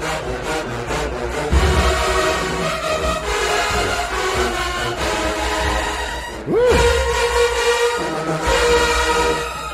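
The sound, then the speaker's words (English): Loud, brassy marching band trombones play sustained, harmonically rich notes, with a sweeping upward slide partway through before the blaring chords resume. No one speaks over the music. “Okay, now we hear the trombones.”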